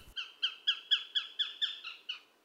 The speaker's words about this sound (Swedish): Som inte låter vare sig coolt eller ninjalikt eller någonting, utan det, det är ju mest någon slags läte och kanske rovfågelläte sådär. Så att men relativt tyst av sig får man nog säga att den är.